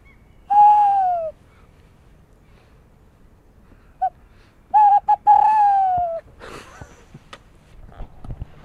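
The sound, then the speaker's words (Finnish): A person imitates a male tawny owl's fanfare hoot, a trumpet-like rhythm: one long, steady hoot, a pause, a soft short note, then a few quick stuttering notes running into a long wavering hoot, loud. “Sipoonkorven pohjoisosissa ja ei se trumpetilta, tai siellä, siellä oli tämmöinen niin fanfaari, trumpetti fanfaari rytmi. Eli, eli mä voin miltä se kuulosti suunnilleen.”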